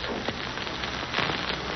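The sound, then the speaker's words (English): Water runs steadily into a tub to moisten a cloth, with a continuous hissing, splashing rush that holds an even level for about two seconds, with no voices. “Uh, Watson, run the water into this tub, will you?”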